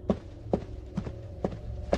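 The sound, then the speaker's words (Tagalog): Five steady footsteps go in and out of a house at an even, unhurried pace, each a distinct thud, over a faint low rumble in the background. “Nakakarinig ako ng babaeng humahagulgol at mga yabag ng paa na labas-masok sa bahay.”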